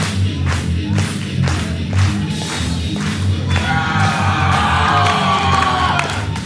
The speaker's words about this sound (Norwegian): Så kommer Håvard, altså Hannibal, inn til jubel fra publikum.